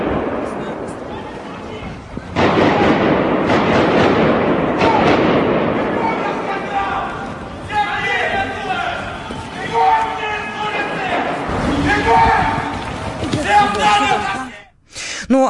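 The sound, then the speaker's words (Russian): Several sharp gunshots from an attack crack out in quick succession, followed by a loud, chaotic crowd of people shouting and screaming as they run, with further bangs mixed into the panic. “И эм, если сейчас у нас есть возможность еще раз услышать самое начало того, что происходило, вот те звуки выстрелов, давайте мы сейчас услышим, что происходило.”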